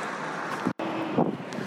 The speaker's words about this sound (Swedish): Det är en sketstor lastbil. Alltid större i Stockholm.